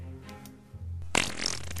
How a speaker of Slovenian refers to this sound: Tlak je pritisk, ki ga merila začuti kot signal, da sprosti danko in prdne